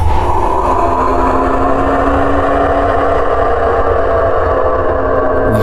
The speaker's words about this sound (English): struck silent by pure terror as the great winged beast, as long as the sun is wide and with a jaw that could swallow a planet, races towards us. It lets out a roar.